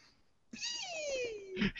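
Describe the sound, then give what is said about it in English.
A man lets out a single high-pitched, excited squeal about Titanfall 2 from EA's E3 presentation, sliding downward in pitch over about a second, fairly loud, ending with a short burst of breathy noise. “that, um, is, that is the sound of a man squeal, ladies and gentlemen.”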